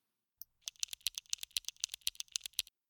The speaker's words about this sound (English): … and … were in Australia and they recorded the sound of the crosswalks there, and it sounded something like this.